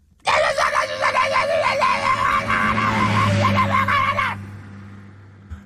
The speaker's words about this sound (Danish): Ja, så kan du bare lige høre, at den skrigende mand kører væk sin McLaren.